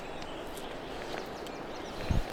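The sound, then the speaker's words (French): Faint songs of a European robin and a wren from down below: thin, high notes and quick trilling phrases scattered over steady outdoor hiss, with a brief low thump near the end. “Il y en a même trois parce qu'il y a le, le, troglodyte en bas. Donc en bas, il y a le rouge-gorge, là.”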